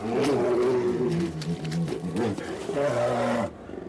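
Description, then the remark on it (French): Two polar bears roar and growl as they fight, harsh overlapping calls rising and falling in a loud, continuous scuffle before stopping abruptly. “une conversation entre un couple d'ours polaires qui veulent essayer d'ouvrir leur couple”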